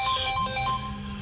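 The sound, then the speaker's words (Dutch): A telephone ringing with a bright, warbling electronic ringtone, steady and fairly loud, over a low sustained hum, with no one speaking. “Hé, hey, de telefoon gaat.”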